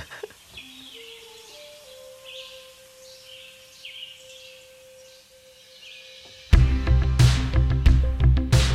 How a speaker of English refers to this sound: it starts with uh, bird sounds and forest sounds and stuff.